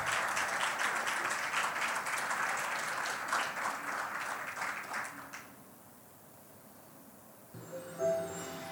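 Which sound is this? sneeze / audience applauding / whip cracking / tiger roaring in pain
audience applauding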